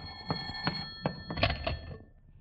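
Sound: telephone bell ringing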